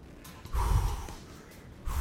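Two loud, forceful exhaling breaths, each a rough, gusty blast of air, separated by a quieter pause with no talking, as the Arcstrider walks in circles around a plaza.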